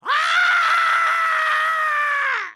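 A single sustained scream rings out loud, held steady for over two seconds before cutting off, with no talking around it: a person reacting as a warm shower is turned to cold water.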